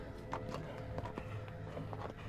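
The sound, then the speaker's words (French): Hooves clop in an uneven, steady rhythm as a horse-drawn sleigh arrives up the entrance drive, the sharp hoof strikes sitting over a low continuous rumble of runners and harness. “Elle avait reconnu, du fin fond de sa mémoire, le son d'un barlot qui s'amenait dans l'entrée.”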